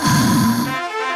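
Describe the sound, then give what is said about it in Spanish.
One loud, rough snore from a sleeping person, a rattling low breath that fades into a softer buzzing tone, with no talking around it. “Y si está asegurada con línea directa, su dueño duerme así.”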